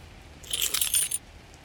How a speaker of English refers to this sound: Michael took the keys out of his pocket